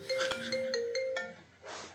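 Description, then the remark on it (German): A phone rings with a bright electronic melody, several quick tonal notes with sharp clicks between them, then a short burst of hiss at the end. “da klingelt wohl ein Telefon.”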